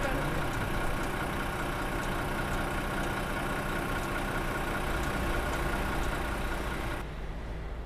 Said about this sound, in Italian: Ok, l'autobus è arrivato. Yeah! Ce la possiamo fare.